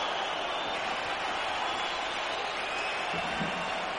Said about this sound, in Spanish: La afición está entusiasmada, como grita, como enaltece. Es, es increíble, qué pena que haya hecho un día tan malo, porque esto con muchísima más gente habría sido aún más increíble.